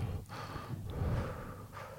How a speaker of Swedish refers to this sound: Vad händer om du inte andas genom näsan? Vad ska jag andas genom då? Testa att andas rakt fram.